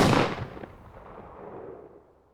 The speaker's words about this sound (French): Et là, un coup de feu éclate dans la nuit.